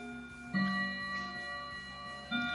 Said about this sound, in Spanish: Son 10 campanadas Menos mal que son solo las 10 de la mañana. Así, bueno, cada campana, de cuento el juego, cada, por cada hora es una campanada. Como son las 10 de la mañana, son 10 campanadas y cada media hora suena una campanada.